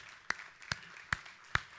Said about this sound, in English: Come on, I want to clap for you. Thank you very much.